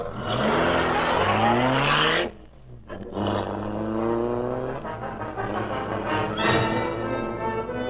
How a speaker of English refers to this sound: Britt Reid pressed a button. The great car roared into life. A section of the wall in front raised automatically, then closed as the gleaming black beauty sped into the darkness.